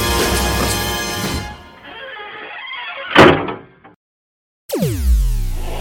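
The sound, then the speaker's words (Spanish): A door shuts with a single solid thunk as fading music trails off, followed by a moment of silence before more music starts. “Y no te preocupes por nada, porque yo cierro.”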